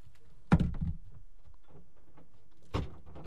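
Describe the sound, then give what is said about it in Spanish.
A door at a radio station is shut with a solid thunk, then a second softer closing thud follows a couple of seconds later, with faint room noise in between. “Voy a cerrar la puerta porque se escucha gente que no entiende que en la radio, cuando alguien está haciendo radio, debe hablar despacio, bajo.”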